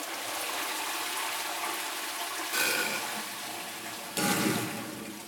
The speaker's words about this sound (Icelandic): ég fór að taka upp hérna, vettfangsuptökur að bara svona hljóðum í pípulögnum og hljóðum í klósetti og bara þessum hljóðheimi sem er svona, svona dulin heimur pípulagna